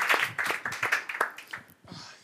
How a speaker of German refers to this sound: Fetter Applaus.